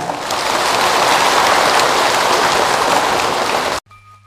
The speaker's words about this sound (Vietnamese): các quý phật tử hãy cùng với chúng tôi dâng cao tràn vỗ tay thật lớn để phát nguyện làm việc đó